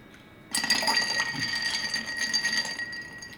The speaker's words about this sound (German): So, dann können wir auch schön ein doppelt gefrostetes Glas nehmen und den Drink sozusagen umfüllen.